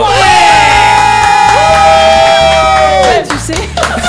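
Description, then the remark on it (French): People shout and cheer loudly in the Buzz Radio studio, holding long high-pitched yells for about three seconds before the noise drops away into scattered voices. “voilà, c'est vrai qu'on avait peur de pas savoir si on arrivait encore, mais si vous criez, c'est déjà bien.”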